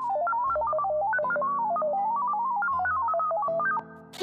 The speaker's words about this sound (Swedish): Jag kan absolut byta min röst. Jag har många olika alternativ att välja mellan. Jag ska trycka på några knappar och vrida på lite reglage här.